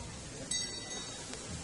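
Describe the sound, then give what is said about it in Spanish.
A small procession bell rings as the Hermandad de la Clemencia enters its chapel at the Polígono de San Benito, a thin, high-pitched metallic tone, a few quick light strikes heard faintly over a steady low background murmur. “Y ahora suena esta campana”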